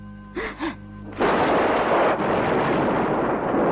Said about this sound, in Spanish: Abrazada a la hermana Ana que se apoya en sus piernas, Ángela se asusta con el ruido de la tormenta.